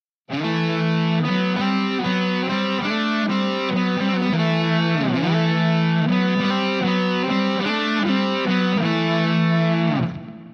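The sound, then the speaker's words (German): A distorted electric guitar plays a melody in two parallel voices a fourth apart, the original starting on E and the harmony on A, steady and continuous with many note changes and a brief bend midway, loud with no talking. “Und so klingt sie zusammen mit der Ursprungsmelodie.”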